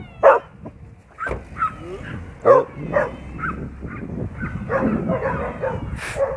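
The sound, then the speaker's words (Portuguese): A dog barks sharply three times at irregular intervals, loud, while people talk in the background. “Esse cachorro doido.”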